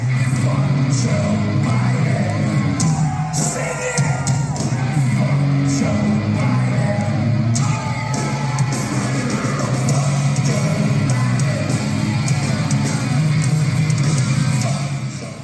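A large concert crowd yells and whoops loudly and without pause, many voices overlapping in a dense, roaring wall of shouts over a steady low rumble.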